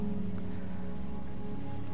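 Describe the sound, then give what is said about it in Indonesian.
Sudden heavy rain pours down in a steady, continuous hiss of dense drops striking a surface, with a faint sustained tonal hum underneath and no voices. “hujan yang tiba-tiba saja turun dengan sangat deras menyadarkan Marlina untuk segera beranjak di ruangan itu”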